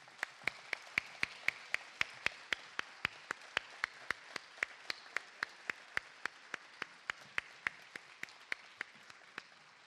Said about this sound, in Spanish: Por favor, un fuerte aplauso para ella